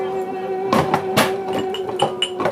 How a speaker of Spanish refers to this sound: Ma, cuidado con los caballos.